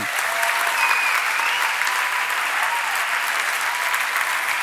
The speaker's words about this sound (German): Und es ist ein Applaus wert für den, der uns dabei begleitet hat, Jesus Christus, der uns unterstützt hat. Deswegen einmal tobenden Applaus für euch und für ihn.